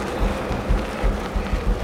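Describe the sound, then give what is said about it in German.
A steady low rumble with a gritty, noisy texture of a car's tires rolling over the ground as the car rolls away, holding at a moderate level with small surges throughout and no voices. “Oh, Himmel, das Auto rollt!”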